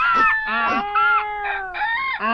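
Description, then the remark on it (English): A rooster crows loudly and flaps its wings, tangled with a donkey braying, a dog barking and a cat meowing in a dense, continuous racket lasting a couple of seconds. “the donkey brayed, the dog barked, the cat meowed, and the rooster crowed and flapped his wings.”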